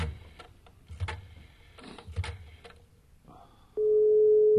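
After a few clicks and rustling handling noises, a loud, steady mid-pitched telephone ringing tone comes on the line and holds to the end as a call to the police headquarters rings through. No one speaks.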